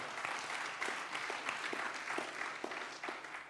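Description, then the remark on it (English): An audience gives God a strong hand clap, clapping together in a dense, steady round of applause, with many overlapping claps forming a continuous bright patter that holds at an even, moderate loudness throughout. “Give God a strong hand clap for that.”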